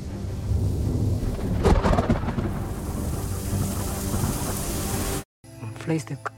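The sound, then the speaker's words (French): Heavy rain pours down in a steady, dense hiss, with a sharp crack and rumble of thunder early on, before the downpour cuts off abruptly near the end. “Et quand elles sont assez lourdes, ces gouttes se déversent sous forme de pluie.”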